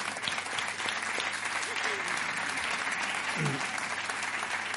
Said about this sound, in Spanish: Pues vamos a, darles un aplauso a tus padres de apoyo, de ánimo.